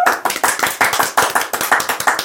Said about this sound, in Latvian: Aplausi!